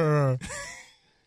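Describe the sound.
A person vocally imitates an alpaca call: a short, steady humming tone that breaks into a breathy, fading exhale, all over about a second.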